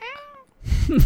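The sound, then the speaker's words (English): A voice imitates a seagull's cry with a short, nasal, wavering wail, then breaks into loud laughter. “You can probably hear the seagulls in the background.”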